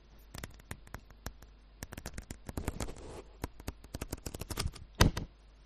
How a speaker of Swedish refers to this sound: Nu ska jag bläddra lite grann i, i Ivanhoe lite närmare mikrofonen här.